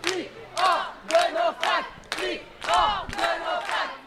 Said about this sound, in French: Et oui, flic hors de nos facs, c'est un des slogans qu'on entend en ce moment même et depuis quelques jours dans diverses facs franciliennes.